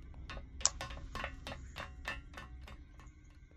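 Footsteps clank across a metal surface at a steady walking pace, about ten evenly spaced steps, each with a slight metallic ring over a low background hum. No one speaks.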